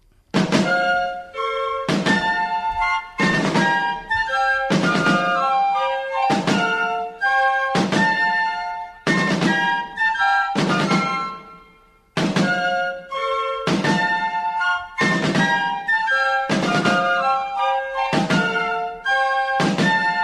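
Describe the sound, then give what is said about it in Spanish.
The military march melody of the Spanish anthem, strongly associated with the Spanish army, plays loud and alone, rich brass-like harmonic tones in repeated phrases with strong rhythmic attacks about every second, pausing briefly around the middle before resuming. “es una melodía militar muy clara que está muy asociada al ejército español y a, la, a, todo lo que fue pues mm, mm, las aventuras y las andanzas de, de nuestros militares.”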